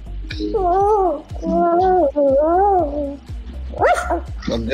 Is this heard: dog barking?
yes